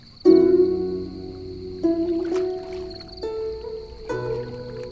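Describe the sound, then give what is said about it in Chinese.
A slow qin zither melody: four low, resonant plucked notes, each ringing out and sustaining with a soft glide before the next, played alone with no voices. “先生的琴声真是越听越美啊！这琴声就像那浩荡优美的流水。”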